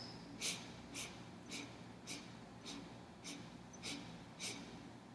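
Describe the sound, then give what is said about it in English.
Eight short, sharp sniffs through the nose in a steady, evenly spaced rhythm, quiet, as one breath is drawn in eight parts during a breathing exercise. No one speaks. “The breathing pattern is eight sniffs on an inhale. So you're breaking your inhalation into eight parts and exhaling in eight parts as well.”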